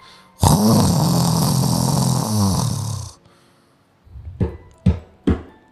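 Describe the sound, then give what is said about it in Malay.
A voice imitates a friend's loud snoring heard at 3 a.m.: one long, harsh, rattling snore lasting nearly three seconds, followed after a pause by three short, sharp snorts in quick succession. “aku nak tidur Tu bunyi dengkur member aku”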